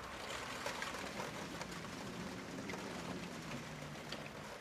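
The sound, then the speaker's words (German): Heavy rain pours down in a steady, dense hiss, with scattered droplet taps standing out against the constant wash. No one speaks. “Und dann fing es in Strömen an zu regnen.”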